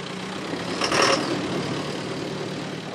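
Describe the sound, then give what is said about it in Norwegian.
A large 125-horsepower John Deere tractor idles on a farmyard in Eid with a steady, low diesel rumble, and a brief louder surge of noise rises about a second in before it settles back to its even drone. “En stor John Deere-traktor med 125 hestekrefter pryder tunet til bondelagsleder i Eid”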